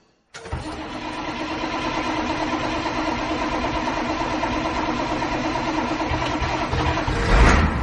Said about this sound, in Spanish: algún día no arrancará este autobús, ya verás tú.